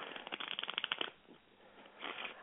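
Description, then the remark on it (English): A worn deck of playing cards is riffle-shuffled, a quick flurry of papery flicks lasting about a second, followed by a softer rustle and a short second burst as the cards are squared up. “I got I got one more shuffle.”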